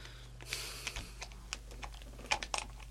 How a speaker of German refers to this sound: Olli hat also wirklich an einem Verlängerungskabel rumgefummelt, das hört man auch